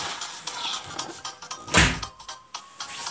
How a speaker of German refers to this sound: Okay, ich habe meine Tür wieder zugemacht, weil meine Eltern hören gerade Musik.